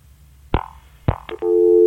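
A few sharp clicks and knocks on a phone line, then a steady, continuous telephone tone comes on loudly and holds to the end, as a caller's line disconnects during a radio phone-in conversation.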